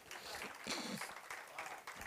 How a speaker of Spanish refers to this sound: Denle un aplauso a Cristo, amén, amén. Amén, gloria a Dios.